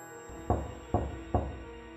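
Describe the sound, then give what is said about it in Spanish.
Three firm knocks on a door, evenly spaced about half a second apart, fairly loud, with a faint steady hum underneath and no one talking. “Volví a la habitación y empecé a caminar hacia su cama cuando oí otro golpe.”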